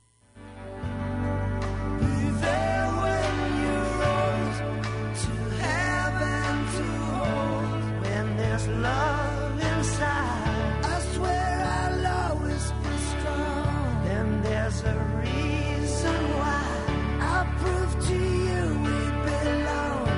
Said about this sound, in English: You were listening to this number one song in January of 1994.